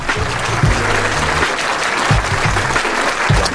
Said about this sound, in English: Y'all give us some rounds of applause for people today. Seriously, that's dope.